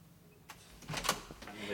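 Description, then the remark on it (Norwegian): Quiet ambience in the newsroom offices of the newspaper Aftenposten, with a few soft clicks and knocks, faint shuffling, and a low background hum, no clear voices, all subdued. “Vi er i Aftenpostens redaksjonslokaler”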